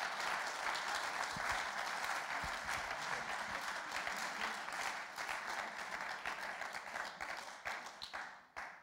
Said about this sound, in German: Wir geben dir einen großen Applaus. Danke, dass du da bist.